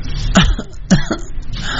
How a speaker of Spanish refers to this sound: Estoy chingando con la tos.